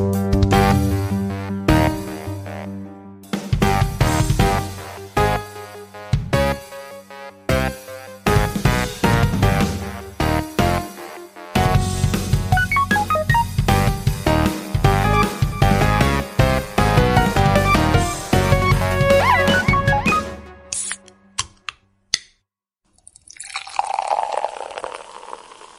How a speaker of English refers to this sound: I'll give you forty seconds to mix a drink. All right, let's see what happens. Let's see what you can whip together in 40 seconds.